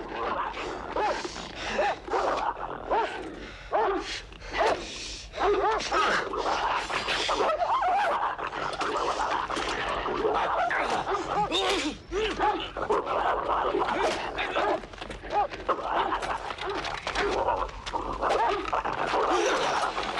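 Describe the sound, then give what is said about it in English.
Several dogs in an animated film scene, wrangled by Steve Archer, bark, yip and whimper in a dense, overlapping chorus that runs without pause, loud, with a busy background din underneath. “And I think it was Steve Archer's job to uh, to to wrangle the dogs.”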